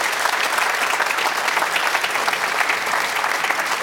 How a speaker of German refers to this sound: Jetzt habe ich Ihnen ja gesagt, wir wollen auch rüberschalten nach Katar zum äh, Kollegen Patrick Berger, den wir mit einem äh, großen Applaus, würde ich mal sagen, hier aus München begrüßen.